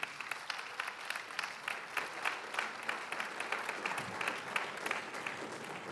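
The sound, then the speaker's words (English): An audience applauds the couple who oversee the life groups, a dense patter of many hands clapping at once, fairly loud and sustained without pause, with no voices rising above it. “In fact, let's appreciate them. Just give, these dear people.”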